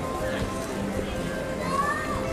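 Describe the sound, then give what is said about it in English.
A bustling theme park crowd on a freezing cold Tuesday: a steady, dense murmur of many overlapping voices with children's chatter, and a brief high-pitched squeal rising out of the din near the end. “It's actually reasonably crowded for a Tuesday.”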